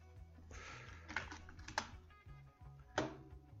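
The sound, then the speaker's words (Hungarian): Computer keyboard typing with several sharp clicks standing out, including a few louder key or mouse clicks, over a steady low hum, as someone clicks around trying to restore a lost connection. “kattintunk ide, kattintunk oda, többek között ide is, és ide is, és jó esetben kicsereg.”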